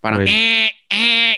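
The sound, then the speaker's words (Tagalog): A voice imitates a smoke alarm with two loud, sustained, high-pitched vocal beeps, the first slightly longer, separated by a brief pause. “Nakadalawang smoke alarm na ako dito”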